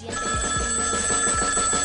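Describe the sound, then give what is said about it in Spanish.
A telephone bell rings loudly and continuously for about two seconds, bright, with a soft rhythmic thumping underneath and no voices. “¡Yo lo cogeré!”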